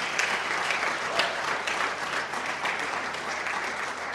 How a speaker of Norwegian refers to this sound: Eh, og vi er altfor dårlige til å sette pris på lederne våre i dette landet, så jeg syns vi kan klappe litt skikkelig for dem innledningsvis.